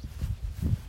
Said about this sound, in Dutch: Nou, jullie horen het misschien al op de achtergrond. Ik ben aan het wandelen